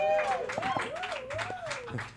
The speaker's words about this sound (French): on peut-tu l'applaudir, s'il vous plaît? Il est-tu assez bon?